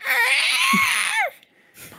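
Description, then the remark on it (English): A person vocally imitates a baby T. rex scream: one loud, shrill, wavering screech lasting over a second, breaking off with a falling squeal and then a short breathy tail. “could you please scream? Could you give me the scream? Oh, the uh, the T Rex. Yeah, the uh, baby T Rex.”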